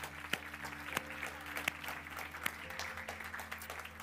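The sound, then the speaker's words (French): An audience at a morning service of the Paris Métropole church claps steadily for the Lord for a few seconds, a dense wash of hand claps with several sharper, louder claps standing out, plus a low steady hum underneath. “Est-ce qu'on peut encore applaudir le Seigneur ce matin pour ce qu'il fait”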